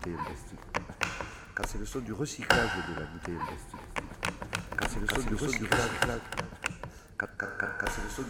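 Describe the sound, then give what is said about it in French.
A plastic bottle being crushed for recycling, with irregular sharp crackles and taps throughout, fairly loud, while people talk over it. “c'est le son du recyclage de la bouteille en plastique.”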